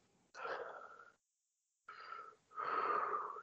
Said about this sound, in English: Deep breath, deep breath, deep breath, deep breath.